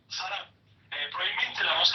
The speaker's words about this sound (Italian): Sento poco la voce e sento tanto fruscio.